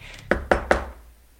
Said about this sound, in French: On frappe à nouveau à la porte d'entrer.